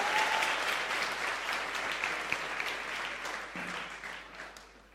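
A sustained burst of audience applause, dense clapping from many hands at steady volume that gradually tapers off toward the end, with no talking over it.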